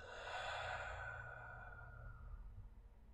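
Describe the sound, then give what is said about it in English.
A long, slow, deep exhale of breath, soft, starting breathy and gradually fading out over a few seconds with no talking. “taking a deep inhale and exhale.”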